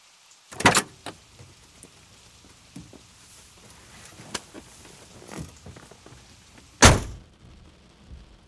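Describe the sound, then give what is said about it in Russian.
A man climbs into the passenger seat of a car in the rain: a solid door thunk near the start, shuffling and seat creaks, then a second heavy door slam near the end, with soft rain hiss underneath. “Окоченевший Виталий медленно опустился на пассажирское сиденье.”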